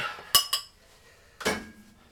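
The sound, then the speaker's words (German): Dishes and cutlery clink together as a dishwasher is loaded: two quick sharp clinks close together, then a pause and a louder clatter, with no talking. “Ah, und wie ihr vielleicht an den Geräuschen sehen könnt, ich räume gerade Spülmaschine ein.”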